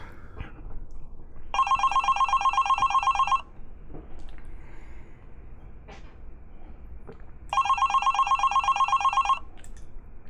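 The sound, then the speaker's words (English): A telephone on a desk rings twice, each ring a loud, rapid electronic trill lasting nearly two seconds, separated by a pause of a few seconds over faint background noise. “then he picks up the phone on his desk.”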